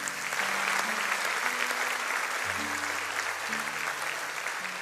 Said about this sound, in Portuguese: Você pode aplaudir.